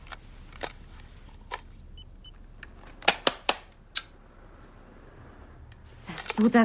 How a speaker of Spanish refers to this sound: Manipula el Disman.